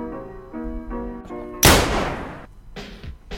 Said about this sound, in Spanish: De pronto, un disparo rompe la tensión de la disputa.